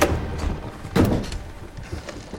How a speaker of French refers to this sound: Déterminée, elle toque à la porte, la tête haute, le regard droit. Elle entre.